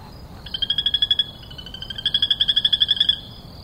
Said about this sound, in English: I was fascinated by the rhythmic calls of some of the birds. For example, mm-hmm. the, the crested barbet Yeah. Or the rufous Cheek Nightjar. Mm-hmm. Or even some of the frogs.